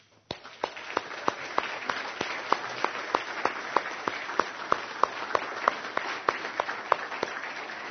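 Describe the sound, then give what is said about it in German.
Steady applause from an audience, thanking all the leading staff and staff members, with many individual claps standing out sharply over a dense wash of hand clapping that starts abruptly and continues without talk. “Und ich glaube, das verdient dann Applaus.”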